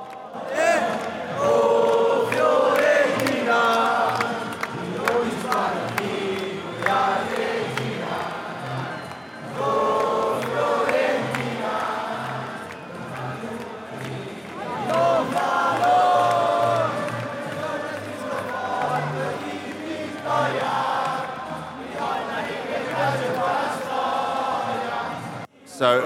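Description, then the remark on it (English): A huge stadium crowd of Fiorentina fans sings the club's viola song as the players come out before kick-off against Lazio, with flags waving and scarves up. It is a loud sustained chorus with a steady rhythmic pulse and swelling melodic lines, with no individual talking. “So everyone's uh, got the viola song coming.”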